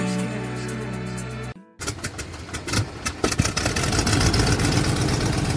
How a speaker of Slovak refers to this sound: ja mám, ja mám taký pocit, ako keby tu vedľa mňa ten motor nejako, ja neviem, ako to opísať, no poprtkával.